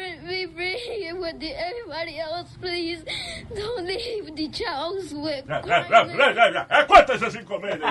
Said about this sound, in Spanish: Hay, un video, un de, una niña que se fue viral porque está pidiéndole que suelten a sus padres que se lo llevaron. Ya. Yeah. ¿Para qué? Para ponerte el video. Para poner una niña llorando. Sí, escucha, pobrecita.